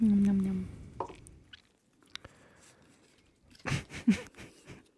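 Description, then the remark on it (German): Wet smacking and chewing noises come in irregular bursts, with scattered soft clicks early on and a louder run of mouth sounds near the end. “Ah, Schmatzen. Sie hat aufgepasst. so toll. Essgeräusche.”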